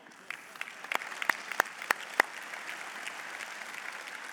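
A short round of applause from a church audience for a man who had done a Bible reading: scattered, fairly quiet clapping throughout, with a few sharp, louder individual claps standing out in the first half before it settles into a softer patter.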